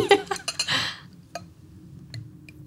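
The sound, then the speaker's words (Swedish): Carbonated mineral water pours briefly into a large glass with a rushing, fizzy hiss, then settles into a quiet stretch of sparse, faint crackles and pops from the bubbles. “du kan hälla på. Är du försiktig där, hör jag.”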